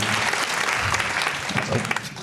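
An audience at Cobb's comedy bursts into steady applause for the wait staff, many hands clapping together in a dense, sustained wash of sound for a couple of seconds.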